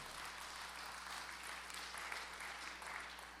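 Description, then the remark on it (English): A crowd applauds steadily, giving Jesus a hand clap of praise, many hands clapping at once in a dense, sustained wash of sound without any voices on top. “Come on, give Jesus a hand clap of praise.”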